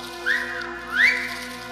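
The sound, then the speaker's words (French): Two short rising whistles, one after the other with a brief pause between, over a faint steady background hum: a hunter on a turkey hunt, around 8:50, whistling as a warning that he is about to ready his gun. No one speaks. “Il siffle pour prévenir qu'il s'apprête à armer.”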